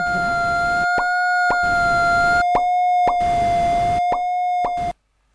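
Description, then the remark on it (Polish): A steady electronic sonification tone from a graphing calculator's audio graph, marked by regular clicks about every half second and alternating with bursts of hissy noise, before stopping abruptly. “Na pierwsze i tutaj będziemy to również słyszeć. Graph H, play.”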